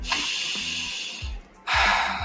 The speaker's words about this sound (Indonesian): Oke, good. Tarik nafas yang panjang.